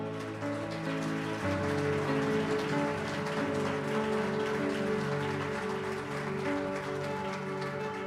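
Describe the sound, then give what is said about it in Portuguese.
A crowd applauds the King of Glory steadily for about eight seconds, a dense, even patter of many hands clapping, with sustained musical chords droning underneath and no voices. “Você pode aplaudir ao Rei da Glória?”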